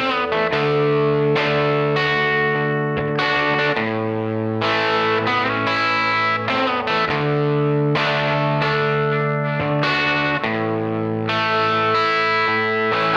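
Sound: song playing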